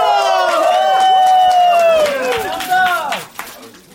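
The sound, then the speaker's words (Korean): A small group cheers loudly, with long rising and falling whoops layered together and scattered claps underneath, before the voices trail off near the end, welcoming new employees who have joined an underwear company. “자, 우리 속옷 회사에 입사하신 여러분 모두를 환영합니다. 박수!”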